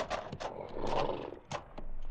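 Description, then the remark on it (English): A horse gallops in as its rider rides in hard, with loud hoofbeats pounding in a quick, uneven rhythm over a rough, rumbling background, with no voices. “Ben was in town with a buckboard picking up supplies when Hunsaker rode in, just pounding leather”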